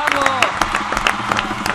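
A burst of applause: many hands clapping in a dense, irregular patter with some crowd cheering mixed in, loud and steady for a couple of seconds.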